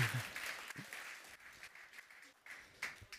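A live audience applauds in a dense, continuous wash of clapping, with a few whoops and voices rising out of it, fairly soft and steady for about three seconds, making noise to honor a man.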